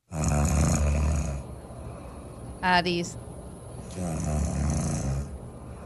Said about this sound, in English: Um, okay, let's play the game. Who's snoring is this?